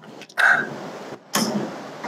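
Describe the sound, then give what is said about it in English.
Two soft, wet sucking bursts made by a voice imitating a sound some children with long-term feeding tubes make, pressing the tongue against the palate in a sucking motion; each has a sharp onset and a breathy, hissy tail, moderately loud. “Um, they're like pressing their tongue up against the surface of their palate and kind of creating like a sucking motion.”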